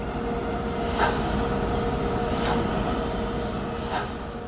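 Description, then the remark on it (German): A locomobile steam engine, which originally powered a machining plant with a lathe, runs with a steady, dense mechanical rumble and a hissing puff of steam about every second and a half. No one speaks. “Diese Anlage wurde anfangs noch mit dieser Lokomobile betrieben.”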